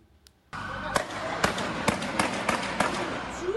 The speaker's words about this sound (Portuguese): O som dos tiros assustou os moradores de Blumenau, no Vale do Itajaí.